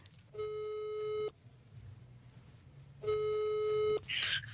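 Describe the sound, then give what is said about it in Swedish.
Two long, steady ringback tones from an outgoing phone call, each lasting about a second with a pause between, loud and clear over a faint low background hum. “Så jag tänker att så här, vad passar inte bättre än att vi, vi ringer henne och så får, får ni snacka lite.”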